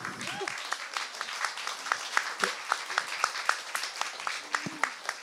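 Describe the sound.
Audience applause, a steady patter of many hands clapping at a moderate level for about five seconds, with a few louder individual claps standing out and faint voices underneath.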